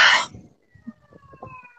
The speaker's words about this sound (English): are those sirens really loud? No, no, it's just it's, it's okay, great.